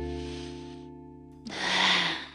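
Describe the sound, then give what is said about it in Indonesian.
A steady low hum runs throughout, then a long, airy breath drawn in through the nose swells up loudly and fades away. No one speaks. “Jadi hela nafas, kita menghirup.”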